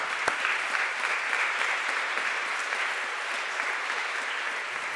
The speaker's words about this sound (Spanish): ¿Por qué no damos unas fuertes palmas a nuestro Señor?